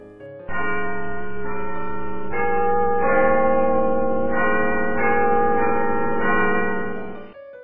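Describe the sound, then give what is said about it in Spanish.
The large clock tower bells of Big Ben strike the hour at nine o'clock at night, ringing out loudly in a slow sequence of deep, resonant tones that overlap and hum together before fading out, with no voices. “Asegura que el juego no ha terminado y es cuando hace sonar una campanilla a la vez que es la hora en punto y suena el mecanismo del gran Ben del reloj.”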